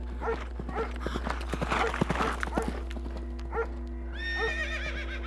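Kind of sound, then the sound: animal, horses' hooves galloping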